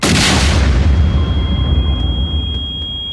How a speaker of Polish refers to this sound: Wybuch.